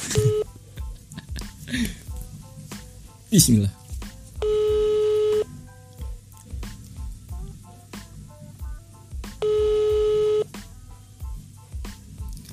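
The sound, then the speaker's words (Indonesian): A phone call to a friend rings out: two steady ringback tones, each about a second long and several seconds apart, with a short laugh and a brief spoken word near the start. “next gue bakal telepon teman gue lagi gue mau tau apakah jawabannya sama apakah uh, yang dilakuin sama selama bulan puasa atau berbeda.”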